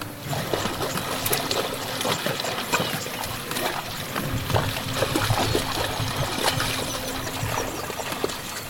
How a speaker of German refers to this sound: Das hier sind Zebras, die in Ufernähe durchs flache Wasser laufen.